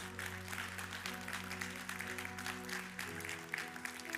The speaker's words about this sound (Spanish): ¿Cuánto le pueden dar un aplauso al que se lo merece?